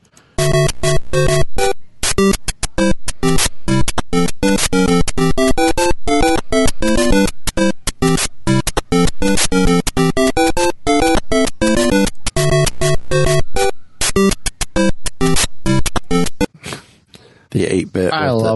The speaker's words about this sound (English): and then, if you want to know what the Super Mario's theme sounds like, it would be this. I mean, okay, well, sound like if you put this in your plush.